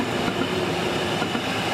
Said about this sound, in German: Fast 60 Jahre lang ist das Geräusch Alltag bei der RHB. Das typische Heulen der Motoren und dem Getriebe von einer 700er, einem Bündner Lokklassiker aus den 60er Jahren.